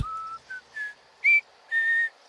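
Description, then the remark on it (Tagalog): A person whistles a short series of clear, steady tones, five notes rising in pitch with brief pauses between them, heard alone. “Narinig ko ulit ang pagsipol na parang ginagaya ako.”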